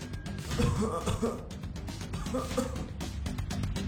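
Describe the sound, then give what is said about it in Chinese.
Faint, muffled coughing in a few short bursts, low and rough, from patients in the surrounding hospital wards at midnight, set against a steady hiss of background noise with no one speaking. “周边的病房里传来细微的咳嗽声，让小乔停住了脚步，看了看戴在右手的表，时针和分针都指向了十二。”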